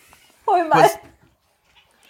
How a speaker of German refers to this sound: Das ist die Katze bei uns gerade, die Mama ist zu Hause.